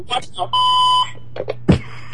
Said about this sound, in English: Your button beeps itself out. Yeah, really. What's up with that?